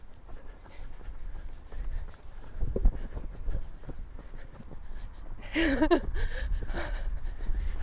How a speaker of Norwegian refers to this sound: Bare ta, ta høre litt på pusten din. Ja. Du kjenner jo at du puster tungt, men du er jo i stand til å prate.